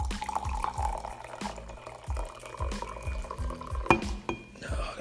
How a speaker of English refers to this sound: and let me pour my coffee very quickly